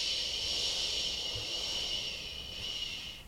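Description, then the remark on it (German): A voice imitates wind in the trees with a long, steady breathy shushing sound, fairly loud for several seconds before tapering slightly at the end. “Ja, so ähnlich macht der Wind.”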